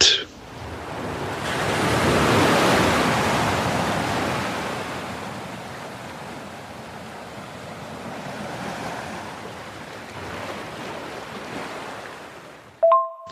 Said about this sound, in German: Ähm, und äh, freue mich, äh, wenn du weiterhin so ein bisschen Meeresrauschen rüberschickst übers Internet. Dann kann ich nämlich auch ein bisschen mit entspannen.